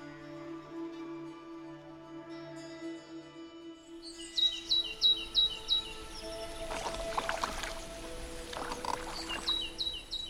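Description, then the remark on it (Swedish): Oars creak and splash rhythmically as an old small rowboat is rowed out across a small, calm lake to go fishing, with birds chirping and a low steady hum in the background; no one speaks. “Vi packade matsäck, drag och spön och rodde ut på den lilla sjön”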